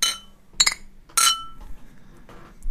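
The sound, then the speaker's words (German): Beer glasses clink together in a toast, with a few bright, ringing taps in quick succession, each ringing out briefly before fading. “Also das machen wir auch, oder? Jawohl. Hey, Drum, miteinander. Zum Wohl miteinander.”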